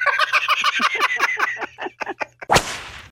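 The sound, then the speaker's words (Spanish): A rooster crows in a rapid, stuttering run of harsh calls lasting a couple of seconds, ending with a sudden loud crack. No one speaks. “Pues quien quisiera tener la dicha que tiene el gallo. Pues, rácate, pupinchín, el gallo sube.”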